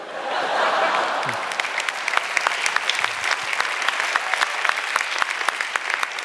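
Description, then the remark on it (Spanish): A crowd claps steadily throughout, dense overlapping handclaps swelling early and then settling into a sustained, fairly loud round of applause with a few sharper individual claps standing out. “Un aplauso para Zapateros”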